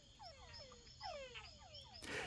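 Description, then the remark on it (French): Male túngara frogs (Physalaemus pustulosus) giving nocturnal mating calls: a chorus of overlapping, downward-sweeping whines repeating every fraction of a second, faint, with a thin insect-like hum above and a brief rustling burst at the end. “Elle concernait les chants nocturnes de séduction des grenouilles mâles Tungara, Physalemus pustulosus.”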